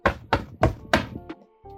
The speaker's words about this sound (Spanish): Yo no volví a la casa de mis padres para que mi vieja me golpease la puerta 11 veces. Así, claro. Así, aparte con violencia.